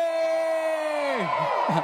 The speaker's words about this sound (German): Das würde man in Afrika höchstwahrscheinlich schon. Ne? Wollen wir mal so einen afrikanischen Jubel üben?